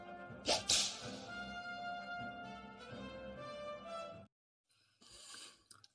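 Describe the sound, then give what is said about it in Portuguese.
A short musical jingle opens with two sharp whooshing swipes, then a sustained tonal melody plays for a few seconds before cutting off abruptly, followed by a brief burst of noisy sound. “vou mandar aqui então o nosso bélico, o nosso belo genérico da joia secreta”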